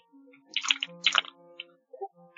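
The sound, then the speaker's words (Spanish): Two short, hissing bursts from a spray paint can as someone paints with it, followed by a faint brief puff. A low steady hum runs underneath, and no one speaks. “Eh, estoy pintando con spray.”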